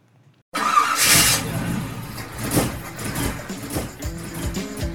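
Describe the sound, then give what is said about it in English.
After a half-second of silence, an old car engine suddenly starts up and keeps running loudly, with a rough, uneven rumble and a brief hissing burst near the start. “Hey, it sounds like it's time to swap out that old engine for something better,”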